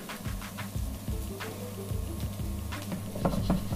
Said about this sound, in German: So, dann schwenke ich hier nochmal meine Pfanne.